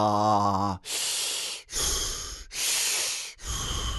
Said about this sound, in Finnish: Valitettavasti paperipussiin hengittäminen jatkuu edelleen.